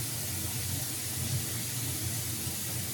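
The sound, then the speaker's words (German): Cold tap water runs steadily into a sink, a continuous hissing splash that holds an even level for the whole stretch, with no voices over it. “So, ausgespült. Dann wieder mit kaltem Wasser, ein bisschen, damit die Katze.”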